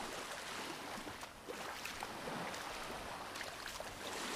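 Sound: ocean waves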